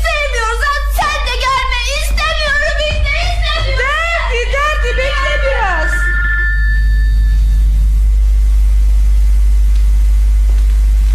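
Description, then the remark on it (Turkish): A telephone rings with a steady electronic tone just after a stretch of animated voices, then fades into a low, constant hum. “Elbi telefon.”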